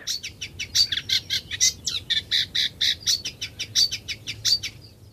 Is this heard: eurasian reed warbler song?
yes